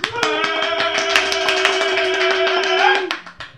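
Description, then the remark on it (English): Dense, steady applause from a crowd of clapping hands, loud, running for about three seconds alongside a sustained tonal whoop or musical note before fading out quickly, welcoming a guest who has just walked through the door. “And let's hear it for the very special who's just walked through the door, the very special, the one and only, the fabulous”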